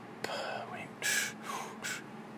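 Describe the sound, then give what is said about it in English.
Audible breathing: a person demonstrates a breath, drawing it in and pushing it out in a few soft, breathy bursts, with no words spoken. “So, synchronize your breath with what you do.”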